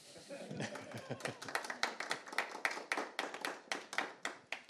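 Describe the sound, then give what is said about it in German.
A small, brief round of applause from a few people, quick handclaps that keep going for several seconds, with a voice and some laughter briefly underneath at the start. “Damit meine ich eigentlich einen kleinen Applaus.”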